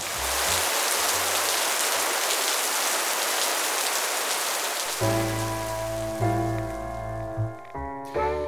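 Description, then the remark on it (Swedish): Steady rain hisses evenly on a surface; about halfway through, sustained musical tones come in and play over the continuing downpour. “I juni 2017 regnade till exempel 26 dagar i sträck i Bergen, vilket var ett nytt rekord.”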